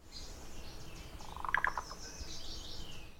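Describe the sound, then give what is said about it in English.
A black-billed cuckoo gives a short, rough croak call of a few quick pulses mid-clip, against a steady outdoor background of chirping insects and birds. “The black-billed uh, makes like a nice croak call,”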